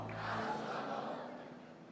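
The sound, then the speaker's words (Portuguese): A large crowd shouts and cheers loudly, applauding Jesus for the life of a singer, a dense, continuous roar of many voices that holds steady, then eases slightly toward the end. “Aplauda Jesus pela vida dela. Grite bem alto.”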